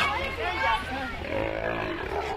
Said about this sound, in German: Und dann ist plötzlich ein wildes Plätschern und Schnaufen zu hören. Ein paar Meter weiter werden die Robben gefüttert.